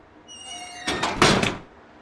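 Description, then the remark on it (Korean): A main gate door creaks open with a thin rising squeak as a man goes out through it, then clunks and rattles shut in a couple of solid knocks, with no voices. “졸제 신하들이 된 녀석은 불효자식 같은 표정을 지으며 대문 밖으로 나간다.”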